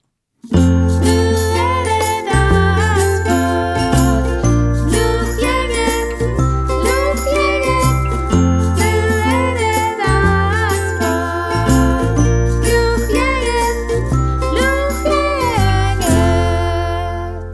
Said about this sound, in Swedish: Så eh, med det sagt, nu ska vi lyssna på en vignett, så här kommer den.